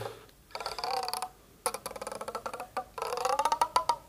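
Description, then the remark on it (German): A taut, twisted tendon with a membrane at its end creaks under strain in stuttering, ratchety bursts of clicks, separated by brief pauses, used as a sound effect for someone who has been hanged. “aber eigentlich kann man das so benutzen dafür, wenn jemand irgendwie so gehängt wurde”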